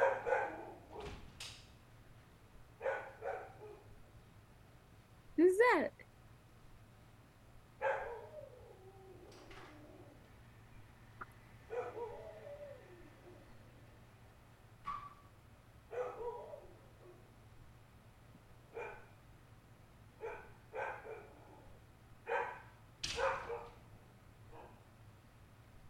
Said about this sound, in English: You want to bark back?